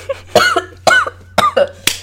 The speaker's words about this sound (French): attends, je tousse.